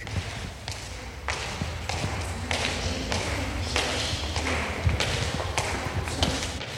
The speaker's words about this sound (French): Ce bruit de pas sur le dallage et le parquet du musée de l'hôtel de ville de Toruń, écoutez-le bien, vous ne l'entendrez jamais plus